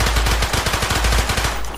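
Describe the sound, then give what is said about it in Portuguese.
A rapid, steady burst of gunshots, more than a dozen sharp cracks fired in quick succession like automatic fire, loud, with no voices, as a man stands up and fires during a firefight. “levantou e disparou.”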